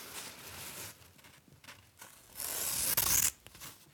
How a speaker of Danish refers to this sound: hvordan det lyder at klippe i stof